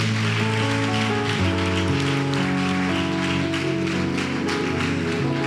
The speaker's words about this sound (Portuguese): Você pode aplaudir ao Senhor Jesus Cristo? Aleluia!